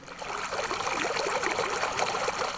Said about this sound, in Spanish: Al menos son tres cuadras las que recorre lo que es prácticamente un río de aguas malolientes. Se escurren desde la calle Guadalupe Rojo, dan vuelta por la Margarita Becerra hasta estancarse unas dos, tres calles más abajo.